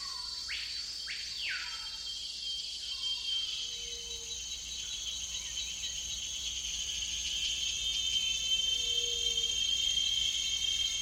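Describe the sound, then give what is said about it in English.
A continuous, high-pitched ringing chorus of field crickets and grasshoppers, many overlapping trills blending into one steady shimmering drone, with a few brief bird chirps early on and no talking. “the whirring of cicadas, and a vast number and variety of field crickets and grasshoppers, each species sounding its peculiar note, all blended together in one continuous ringing sound, the audible expression of the teeming profusion of nature.”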